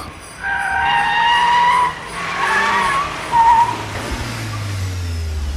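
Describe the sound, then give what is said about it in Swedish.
A new Cupra Formentor sports car, driven by racing star Mattias Ekström on a test drive in Munich, skids hard with loud, wavering tire squeals in bursts lasting several seconds, then a low engine rumble takes over as the squealing fades. “Jag åkte till München för att provköra nya sportiga Cupra Formentor och hamnade i passagerarsätet intill racingstjärnan Mattias Ekström.”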